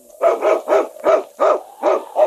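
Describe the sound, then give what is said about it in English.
Yukon King, the husky lead dog in the radio program Challenge of the Yukon, first aired in 1949, barks loudly, about seven sharp, evenly spaced barks in quick succession, with no one talking. “It's Yukon King, swiftest and strongest lead dog of the Northwest, blazing the trail for Sergeant Preston of the Northwest Mounted Police in his relentless pursuit of lawbreakers.”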